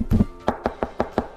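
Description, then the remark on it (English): A quick series of sharp knocks at a door by a neighbor, about six raps in a fast, even rhythm after a slightly heavier first blow, with no voices. “there was another knock at the door.”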